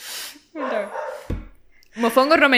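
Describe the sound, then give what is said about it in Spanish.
A female dog barks in two short bursts of harsh, yelping sound, with a brief thump between them. “mala mía, es que la perra está ladrando y si va a salir en el, en este.”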